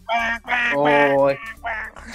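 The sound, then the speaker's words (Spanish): A person imitates a duck with four loud, nasal quacks in quick succession, the middle one drawn out longer, with no other sounds around. “¿Cómo es un pato? Pues si quién no conoce un pato.”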